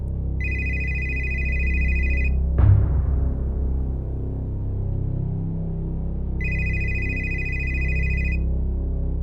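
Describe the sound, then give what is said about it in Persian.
A phone rings twice with a steady electronic tone, one burst at the start and another near the end, over a low rumbling background with a brief thud in between. “تو همین فکر و خیال بودم که تلفنم زنگ خورد”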